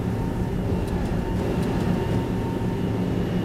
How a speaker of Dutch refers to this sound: Nou, we zitten nu aan boord van een Metal Shark. En zoals je hoort gaat het redelijk los. We hebben veel oh, golven. We varen weliswaar met de stroom mee, maar we pakken die golven gewoon eh, over de kop. Dus eh, we vallen steeds weer in een nieuwe.